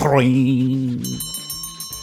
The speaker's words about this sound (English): Oh, ladies and gentlemen, there's the closing bell.